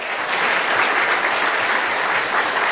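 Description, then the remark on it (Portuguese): Steady, dense applause from an audience, many hands clapping at once in a continuous, fairly loud wash with no pauses for the full few seconds. “o Clarice é uma pessoa que merece todas as palmas do mundo”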